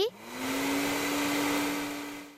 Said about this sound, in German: Geräusch 2, hm, ein ziemlich unbeliebtes Reinigungsgerät im Haushalt, ein Staubsauger.